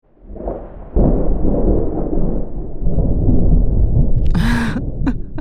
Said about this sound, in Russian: Ну вот мы сейчас сравним. Да, да гром пустите, пожалуйста.